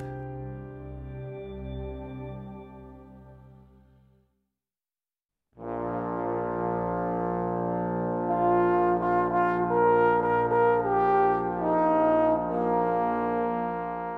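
Several layered trombones play a slow solo intro: a held low chord fades to a brief silence, then a fuller, brighter brass swell of sustained harmonies enters and rises, with no voices.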